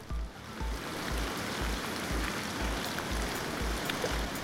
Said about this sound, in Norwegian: Hun kikker sultent ut stuevinduet. Regnværet suser rundt hushjørnet og legger et grålig slør over byen. Vær forsiktig, det kommer til å fryse på bakken dette regnet, sa de i radioen.